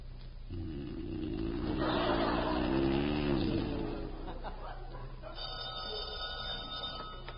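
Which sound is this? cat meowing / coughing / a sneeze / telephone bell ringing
telephone bell ringing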